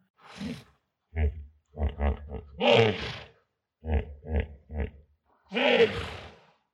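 Hippopotamus calls: bursts of deep, rhythmic grunting that swell into two loud, bellowing roars, with short pauses between the series. The calls sound strong, with no talking.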